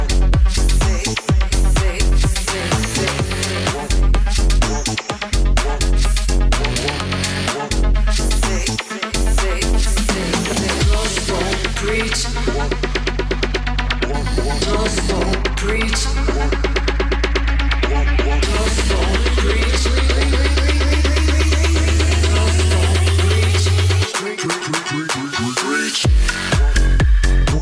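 An electronic dance track plays loudly and continuously, with a pounding bass line, dense layered synths and rhythmic percussion, building steadily before dropping into a sparser section near the end.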